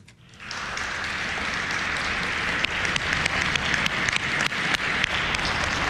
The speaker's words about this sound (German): Mit einem Applaus für die Helden in der Krise und Je vous remercie. Einem Schwiegen für die Opfer der Krise hat das Bundesparlament heute seine Arbeit wieder aufgenommen.